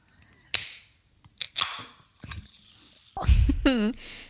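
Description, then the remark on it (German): A few sharp metallic clicks, like fingers working the tab of a chilled red Coca-Cola can, then a loud hiss as the can pops open, followed by a brief rising-falling squeaky tone. “Ich habe echt überlegt und dachte mir, eine Flasche ist eigentlich praktischer. Und dachte mir aber, dieser Sound”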